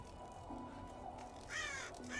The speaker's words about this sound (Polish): Zakrakały kruki i wzbiły się na czarnych skrzydłach daleko, daleko hen.